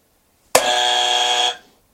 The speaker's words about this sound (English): Well, it's, up to, it's a buzzer. If you buzz first, whatever.